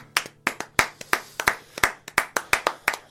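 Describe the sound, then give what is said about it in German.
A single person, the performer, claps steadily for themselves after a song with guitar, about ten sharp, bright claps in roughly three seconds with a slightly uneven rhythm and no voices. “jetzt habe ich der, der Applaus hat jetzt nicht geklappt. Mich mal selbst.”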